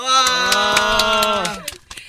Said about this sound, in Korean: 어, 박수 한 번 쳐주세요.